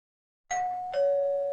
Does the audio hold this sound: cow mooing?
no